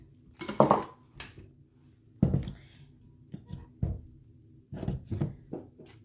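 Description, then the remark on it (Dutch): Several soft thuds and light clatters as about four or five raspberries drop one by one into a blender jar at irregular intervals over a low steady hum, fairly quiet. “Als volgende doe ik een paar stuk of vier framboosjes in de blender erbij.”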